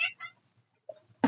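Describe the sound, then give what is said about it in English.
A cat gives a couple of short, quiet meows in quick succession, then a brief higher chirp-like call, followed by a sudden soft burst of noise at the end. “That's the cat.”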